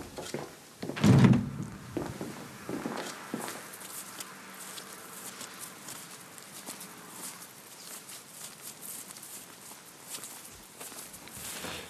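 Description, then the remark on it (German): A door is opened in the dark: a heavy clunk near the start, then a few softer knocks and thuds, fading into quiet rustling and faint shuffling steps. “Kurwa, wo ist die scheiß Tür? Ah, ich hab sie.”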